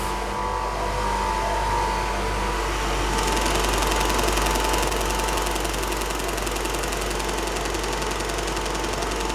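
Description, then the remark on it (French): A Matipo film contact printing machine prints positives in a shared film laboratory, with its motor, ventilation and lamp on as negatives run with blank film: a continuous motorized hum with a rapid, rhythmic mechanical clatter that grows brighter and busier partway through. No voices. “la Matipo, la machine de tirage des positifs.”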